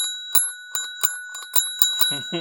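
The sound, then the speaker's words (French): A bright bell rings in a quick series of about eight dings over a steady metallic hum, clear, like a bicycle-style notification bell, with a short lower tone at the end. “la cloche de notification. On a du budget dans Ifra Café Activez la cloche de notification mm.”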